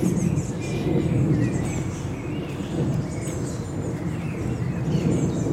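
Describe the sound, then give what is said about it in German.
An airplane passes overhead as a steady, moderately loud low rumble lasting throughout, while birds chirp and tweet intermittently in the background. “Man hört gerade ein Flugzeug.”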